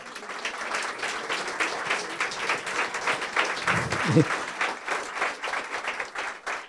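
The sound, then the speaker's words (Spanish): An audience applauds a woman for her answer, steadily for several seconds, a dense, crackling wash of many hands clapping at once, with a brief voice rising through it partway. “Por favor, no se queden así, denle un aplauso a esta dama.”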